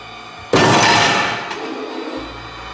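A single heavy, sudden bang on a door rings out loudly and fades slowly, followed by a fainter knock about a second later. No one speaks.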